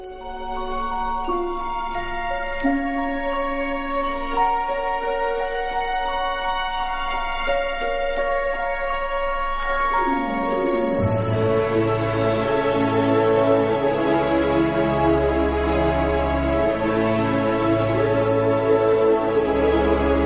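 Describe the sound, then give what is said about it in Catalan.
Orchestral score music from a Tim Burton film, opening with sustained, layered tones over a steady ticking pulse, then swelling around the midpoint into a fuller, louder passage with deep bass and rich harmonies. No voices. “La banda sonora de la pel·lícula va estar nominada a la millor banda sonora i encara que no va guanyar, es tracta d'una de les obres més valorades del compositor i no és d'estranyar en escoltar composicions com aquesta.”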